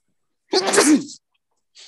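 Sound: sneeze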